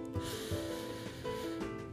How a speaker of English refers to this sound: But first, let's do our deep breathing. We're going to smile Breathe in your nose